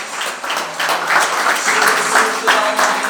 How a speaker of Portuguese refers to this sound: Dê uma salva de palmas para aquele que é digno.